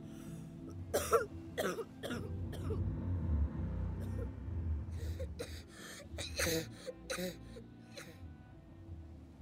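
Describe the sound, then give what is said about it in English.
Repeated coughing from sick people below deck on a ship sailing to Canada comes in scattered bursts, several harsh hacks close together, over a steady low rumble in the stuffy, dark space. No one speaks. “Below deck was stuffy and dark, and many people were sick and coughing.”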